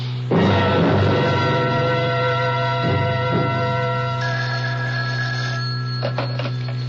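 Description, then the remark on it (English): A telephone rings over the line as a phone call is being made, its bright electronic tone repeating in a few bursts above a steady low hum, with no one speaking. “First of all, I've got to make a phone call.”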